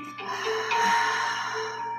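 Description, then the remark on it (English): A slow, steady breath exhaled out through the mouth during a breathing exercise, a soft breathy rush of air lasting about two seconds, over a faint constant background hum. “Breathing in through the nose and out the mouth”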